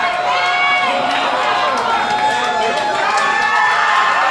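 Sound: wrestling crowd cheering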